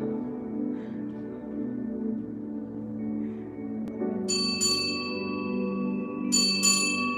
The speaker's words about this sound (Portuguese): E Pedro lançou a rede. Como esse sino que toca para nós, despertou.